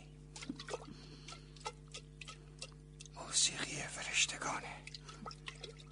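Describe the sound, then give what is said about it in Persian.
Water sloshes inside a clay jug in one brief, noisy swirl partway through, set against a quiet room with faint ticking and soft whispery background. “نگاه کن این کوزه رو میبینی؟ صداش رو میشتوی”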